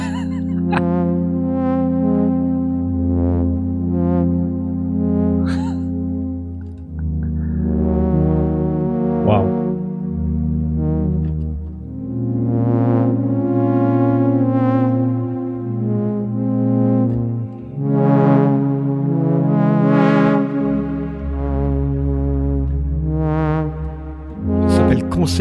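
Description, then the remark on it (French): A synthesizer's first preset, A01, named ship entering a port, imitating a foghorn, with deep, loud droning blasts that sustain and shift in pitch over about twenty-five seconds, with bright harmonic swells rising on top. “de Corne de Brume.”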